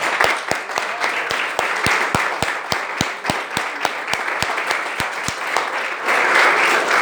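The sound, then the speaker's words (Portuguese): A church audience applauds for the Lord after a prayer, with sharp claps landing in an even, rhythmic beat over a dense wash of clapping that swells slightly louder near the end. “As palmas ouvem o Senhor.”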